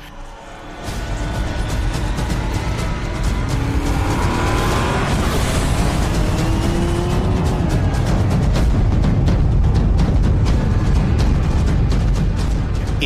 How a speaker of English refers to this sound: My other honorable mention, and this is very close second place, is from Mad Max Fury Road. And it's the Giga Horse Immortan Joe's car, which is a fucking beast.